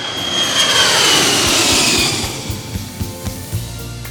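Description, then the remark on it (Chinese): An airplane flying back to the home country roars through takeoff, a broad jet-engine rush with a high whine that swells loudly, then eases off while low thumps and rumbles continue underneath. No one speaks. “回国的飞机起飞了，他再也不用思念家乡喽。”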